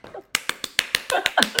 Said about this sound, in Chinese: 哎，不对，不是第八集，讲错，突然口误，打自己一巴掌，